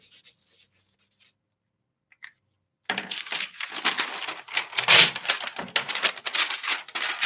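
A pen or marker scratches across paper as the Russian word for dentistry is written: a soft stroke, a pause, then a busy run of quick, rough scrawling strokes with no voices.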